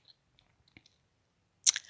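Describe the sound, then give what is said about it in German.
Keyboard typing: a few soft, scattered key clicks, then a brief louder burst of clattering keystrokes near the end. No one speaks. “Und wie sehr das vorbei ist, das spüre ich so hier beim Tippen.”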